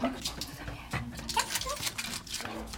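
A 12-year-old dog whimpers in short, high, wavering whines scattered across a few seconds, on its birthday at the end of November, with some faint background noise and indistinct voices.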